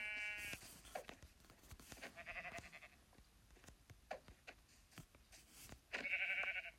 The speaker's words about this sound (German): Oh, das ist ein Schaf. Sehr, sehr nice.